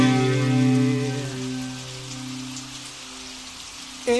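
Steady rain patters on a surface with a fine, continuous hiss, while low sustained tones ring beneath it and gradually fade, leaving mostly the rain.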